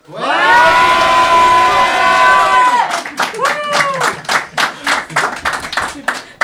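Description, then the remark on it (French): A live audience at the Boulangerie Bar in Lille cheers and whoops loudly, voices rising together, then breaks into energetic rhythmic clapping with scattered shouts continuing over it. “Pour cet épisode, comment en fait pas mal de précédents épisodes des derniers mois, nous ne sommes pas à l'endroit habituel où j'enregistre ce podcast à Paris, vous l'entendez, et parce que nous sommes à Lille avec un public très chaud.”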